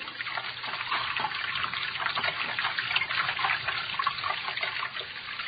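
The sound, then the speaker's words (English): Water trickles and splashes steadily, a continuous bright babbling flow with no voices, like a small stream or running tap. “I hear it. Yet no water here.”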